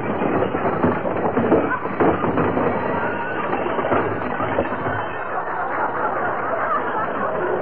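A long, loud cascade of junk crashing out of a closet as Mr. Gildersleeve opens its door, with rattling, banging and clattering that tumbles on steadily for several seconds before easing off slightly, with no one speaking.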